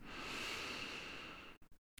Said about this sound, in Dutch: En laten we beginnen met even een diepe ademhaling te nemen in door je neus.